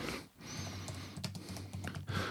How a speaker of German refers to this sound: Äh, ich klicke, klicke, klicke.